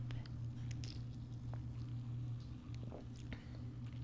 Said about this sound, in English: oh God, I hate slurping. It kind of just tastes like coffee.